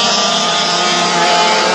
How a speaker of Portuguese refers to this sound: É o Christian fazendo a curva 4 aqui, deixando o kart escorregar